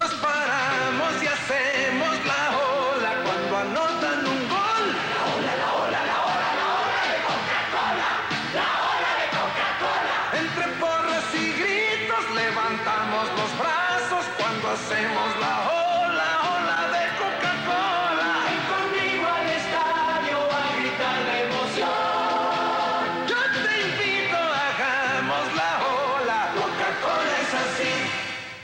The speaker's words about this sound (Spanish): ¿Por qué vinculamos el Mundial de México 86 con esas palabras y esa música de Coca-Cola? La ola de Coca-Cola. Un juego de palabras muy obvio, casi tonto, pero con una gran capacidad de convocar una emoción colectiva.